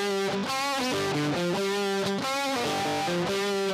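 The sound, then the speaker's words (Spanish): A distorted electric guitar plays the original riff of a song, loud and gritty, on its own, repeating a short pattern of changing notes with sustained, buzzing chords and no voices. “Pero el riff original del tema es complicado de tocar.”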